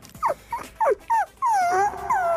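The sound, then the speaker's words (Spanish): A dog yelps in four short, sharp bursts, then lets out a longer, drawn-out whimpering whine. It is fairly loud, with no talking. “Pero un perro que le están apretando el huevo.”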